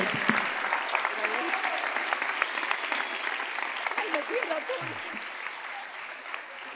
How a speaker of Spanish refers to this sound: Un aplauso fuerte